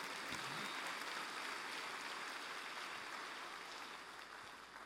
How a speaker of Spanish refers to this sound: En el nombre de Jesús. Amén. un aplauso más al Señor.